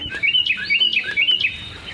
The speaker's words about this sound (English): This is a Carolina wren.